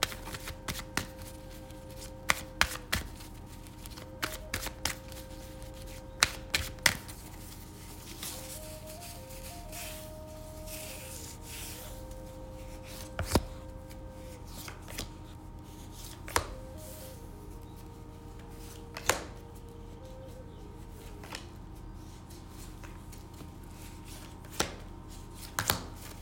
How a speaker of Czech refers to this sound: A já už se dívám na vaši fotku, míchám u toho karty a my se spolu podíváme, co nám rod poví o vás dvou.